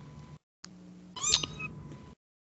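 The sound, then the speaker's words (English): A cat lets out a loud, drawn-out, harsh yowling meow over a steady low background hum, with brief silent gaps before and after. “That was cats yelling at him.”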